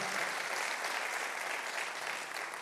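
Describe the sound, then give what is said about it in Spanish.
An audience applauds steadily, a dense, continuous wash of many hands clapping at an even, sustained loudness with no voices standing out above it. “Vamos a darle un aplauso al Dios eterno y poderoso.”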